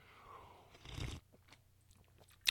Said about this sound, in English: Peter Madera, that was my complimentary sip of coffee to you.